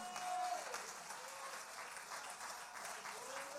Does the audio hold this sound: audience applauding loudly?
yes